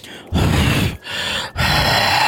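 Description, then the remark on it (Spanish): A voice imitates air from air-conditioning vents buffeting a cell phone: loud, rumbling bursts of blown air distorting the microphone, three gusts separated by brief pauses, with no other talking. “Súbale al vidrio o cierra un poquito las ventanillas del aire acondicionado para que no peguen así en el celular y, se escuche así.”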